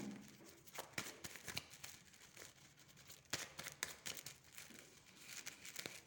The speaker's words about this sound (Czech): Já už držím v ruce karty, dívám se na vaše fotky, už to míchám a podíváme se teda, co se rozvíjíme.